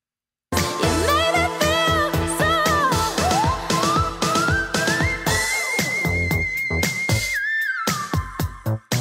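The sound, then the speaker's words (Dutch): A singing voice soars into the whistle register, a thin piercing tone gliding and sustaining at extreme height over a busy instrumental backing, loud. “Nu nog een laatste dat ik wil laten horen. Is fluitregister.”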